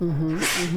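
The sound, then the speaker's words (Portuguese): A single quick, breathy sneeze bursts out, sandwiched between a person's soft murmured acknowledgements. “Uh, saúde! Nossa, saúde.”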